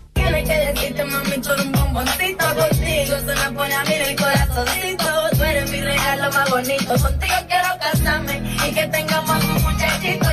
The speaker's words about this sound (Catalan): Aquesta que sona és una de eh, les cançons dels balls més virals a TikTok